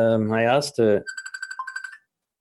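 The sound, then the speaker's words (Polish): A phone rings with an incoming call from a Bhutanese business partner, a quick electronic trill of rapid warbling beeps lasting about a second, moderately loud, right after a short burst of voice. “That's actually her. Can I take this call? To właśnie ona dzwoni.”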